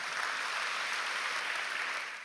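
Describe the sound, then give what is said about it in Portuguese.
Steady, dense applause for the Lord, a continuous crackle of many hands clapping at an even, fairly loud level for about two seconds before it quickly cuts off. No voices are heard. “Você pode dar um aplauso bem forte ao Senhor por isso?”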